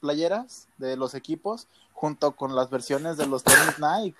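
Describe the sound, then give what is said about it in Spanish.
A single loud, sharp sneeze bursts out in the middle of steady conversation, with people talking before and after it. “¡Salud! ¡Salud!”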